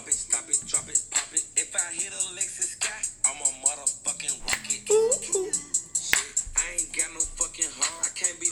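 A hip-hop track plays with a steady, snappy beat of sharp clap-like hits, while a vocalist raps or sings over the top at a moderate, even level.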